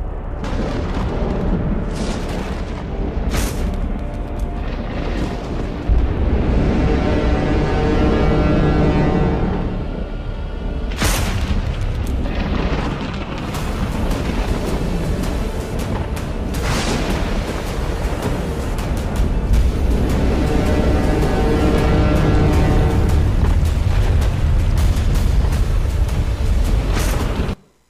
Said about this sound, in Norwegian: Det er torden fra Sinai. En liten snutt som er lagd for å prøve å vise oss hvordan det kunne ha sett ut da Gud kom ned på Sinai-fjellet.